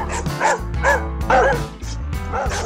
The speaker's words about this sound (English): Does your dog obsess over balls, beg for food, is constant loud barking driving you crazy?